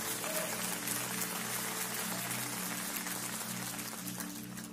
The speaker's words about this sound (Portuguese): Você pode aplaudir o Senhor por isso?